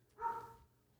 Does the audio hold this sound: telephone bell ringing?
no